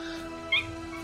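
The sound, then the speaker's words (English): A single short meow from a pet cat named Cleo cuts in briefly, moderately loud, over a steady low background hum. “guys, it's a cat.”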